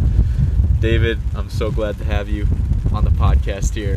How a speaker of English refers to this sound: Uh, we got a little blustery. You might hear that in the background. Got a little rain storm pouring in here, but we're good.